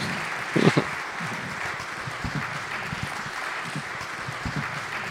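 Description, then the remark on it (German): Steady audience applause for a musician joining a live music performance, a dense crackle of many hands clapping at moderate loudness, with a brief louder burst near the start and no voices. “Applaus für”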